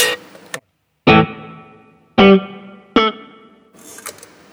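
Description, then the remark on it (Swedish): Electric guitar with spring reverb plays four sharp, loud chords, each ringing out into a washy, lingering tail, followed by a softer, scratchy flourish at the end. No one speaks. “Här är lite mer spring.”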